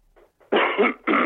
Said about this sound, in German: Ich muss mich leider nochmal räuspern.